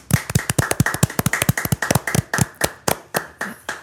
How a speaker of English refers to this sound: I said we'd clap into the microphone.